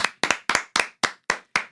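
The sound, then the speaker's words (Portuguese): A single person claps hands in a steady rhythm, about seven sharp claps with a few doubled ones, crisp and fairly loud, with no talking, applauding a song reaching sixth place. “Palmas.”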